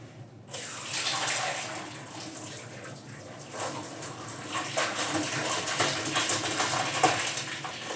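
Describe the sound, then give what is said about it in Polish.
A kitchen tap runs steadily, water splashing and hissing as it rinses cooked tortellini in a sink, with small shifts in the flow as it hits the food. Fairly loud, no talking. “przepłuczę wodą.”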